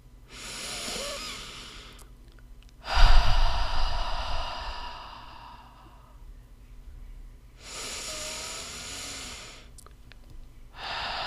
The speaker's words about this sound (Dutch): Adem een paar keer diep in door je neus en uit door je mond in jouw eigen tempo.